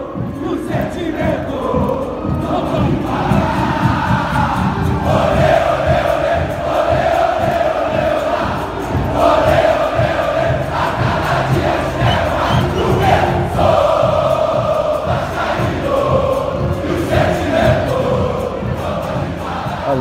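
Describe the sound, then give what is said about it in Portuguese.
A large football crowd chants and sings together in a loud, steady roar, with rhythmic pulses running underneath the massed voices for the whole stretch, and no one speaking over it. “Então, esse é o meu destaque e sobe som aí para essa torcida maravilhosa para que a gente possa entrar no papo do pós-jogo.”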